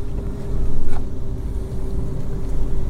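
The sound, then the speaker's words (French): An agitated, unhappy honeybee hive buzzes with wingbeats in a dense, steady drone that runs unbroken throughout, fairly loud with a rough, rumbling low end and no voices. “C'est le bruit de l'abeille qui est pas contente.”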